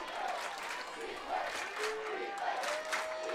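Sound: football stadium crowd cheering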